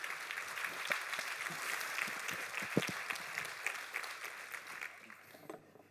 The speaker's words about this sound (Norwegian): Så Da gleder vi oss til å høre på de. Gi de en varm applaus. Det er sikkert det som skal til for de kommer ut.